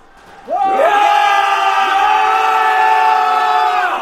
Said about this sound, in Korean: 장군, 저들이 질러대는 함성이 하늘의 진동에서 우리 군사가 겁을 먹지 않을까 염려되니